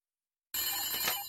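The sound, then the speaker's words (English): A telephone bell suddenly starts ringing after a moment of silence, a loud, continuous metallic ring that keeps going to the end with no one speaking. “gotta make a phone call.”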